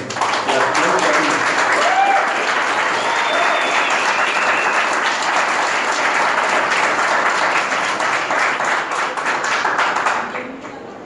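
Loud, sustained applause from an audience, a dense wash of many hands clapping for about ten seconds at steady intensity before tapering off at the end.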